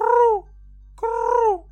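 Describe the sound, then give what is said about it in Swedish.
A pigeon on a roof ridge above a large front door calls twice: two short, rich, tonal notes that rise slightly and then fall, separated by a brief pause. Both are fairly loud, with steady low background hum and no talking. “Du kan höra den ger ifrån sig ett ljud och därefter så släpper den en skit ifrån taknocken precis framför den här stora ytterdörren.”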